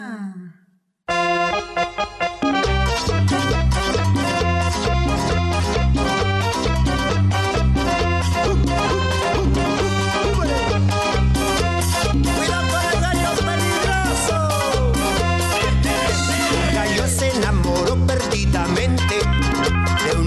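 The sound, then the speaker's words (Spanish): An upbeat children's song plays loud, with a bouncy, steady beat and bright layered instruments, starting abruptly after a second of near silence and continuing throughout. “vamos a ir a escuchar una cancioncita más de nombre … de la granja de Zenón”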